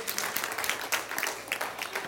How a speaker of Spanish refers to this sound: Vamos a ponernos de pies. Damos gracias al Señor, un aplauso al Señor por su bondad en esta noche.